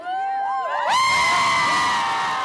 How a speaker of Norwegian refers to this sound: Du hadde kanskje glemt den lyden, eller muligens fortrengt den. Mange har lyden av hylende tenåringsjenter frist i minne.